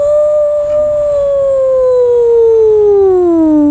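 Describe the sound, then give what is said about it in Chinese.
A person imitates a wolf's howl, voicing a story character howling up at the golden moon, with one long, loud, sustained vocal tone that slowly slides downward in pitch, rich in overtones, with no other talking. “莫卡抬起头，看着金色的月亮，使出浑身的力气，就像狼一样放声嚎叫起来。”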